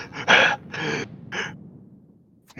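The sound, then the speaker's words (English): A person gasps for breath in three ragged, strained pulls, the first the loudest, then the breathing fades into quiet. Alone, with no talking. “like trying to gra- gasp for breath.”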